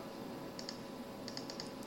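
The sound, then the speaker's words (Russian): Light, quick keystrokes on a computer keyboard as a name and email are entered into an online order form, a short burst of clicks followed by a few more taps over a steady low background hum, with no one speaking. “Форма заказа, введите имя, ввожу, email, так”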